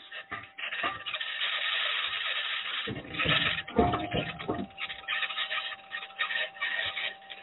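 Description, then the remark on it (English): Continuous grinding and crunching of the Perseverance rover's aluminum wheels rolling over rocks as it drives on the surface of Mars on Sol 16, with irregular clattering bursts and chassis, spring, actuator and suspension noises, over a steady hum from the rover's electronics. “All those interesting noises are rocks that the wheels, the aluminum wheels, are encountering.”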